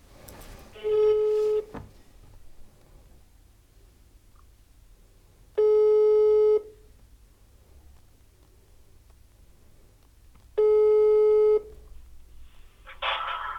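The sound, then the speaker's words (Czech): An outgoing phone call rings late in the evening: three steady, buzzy one-second tones spaced about five seconds apart over faint line hiss, ending with a short burst of noise as the line connects. “Takže já bych mu teďka zkusil zavolat.”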